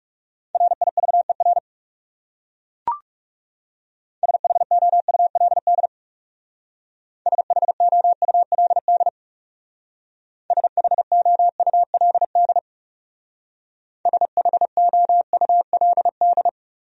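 Morse code practice sending common English words at a fast 30 words per minute: a steady mid-pitched tone keyed into rapid dots and dashes, grouped in five short bursts separated by pauses, with one brief click early on.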